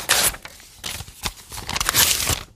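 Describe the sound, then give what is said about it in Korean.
Paper being torn in several quick rips, bursts of bright crackling rasp with short pauses between them, no voices. “네, 이 종이 찢는 소리.”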